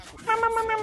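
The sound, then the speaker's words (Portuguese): A person vocally imitates the jump sound of Yoshi, the video game character: one short, high, steady-pitched voiced note lasting about half a second, fairly loud, with no other talking. “Cara, esse é o barulho do Yoshi, toda vez que tipo, ele pula, tá ligado? Ele faz um...”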